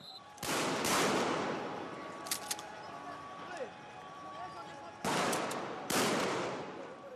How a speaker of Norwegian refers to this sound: Politifolkene har hjelmer og skuddsikre vester. De bruker pumphagler til å skyte gummikuler mot demonstrantene.